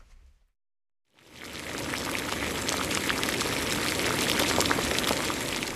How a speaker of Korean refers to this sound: 준비가 됐으면 보리병을 저 끓는 기름 속으로 던져라. 던져라! 예! 예! 응. 또 얼마나 끓이면 되겠느냐? 기름이 다 졸아들 때까지 바짝 바싹 바싹 튀겨야 합니다.